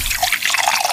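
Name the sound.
drink being poured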